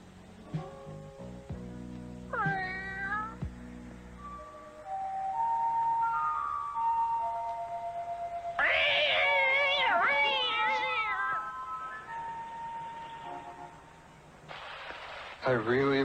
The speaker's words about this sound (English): But hey, what am I laying this heavy trip on you for? You're just a cat.